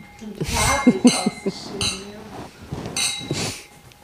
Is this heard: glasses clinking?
yes